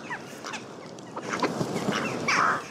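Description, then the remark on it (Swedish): A recording of a flock of geese honking in a rough, overlapping series of nasal calls, growing busier and louder toward the end, with no voices. “Eh, en skiva med fågelsång.”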